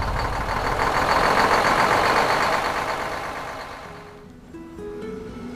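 A heavy truck engine rumbles loudly and steadily as the driver starts it to resume his route, then the noise fades as the vehicle pulls away, leaving a lower engine drone with rising tones near the end. No talking.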